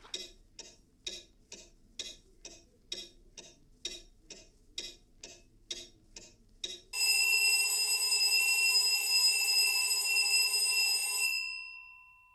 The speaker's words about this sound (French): Pas le doux réveil au chant des oiseaux. Non, non. La douche froide. Le réveil brutal qui sort le monde de son lit avec une sirène à vous vriller les tympans.